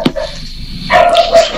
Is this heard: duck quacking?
no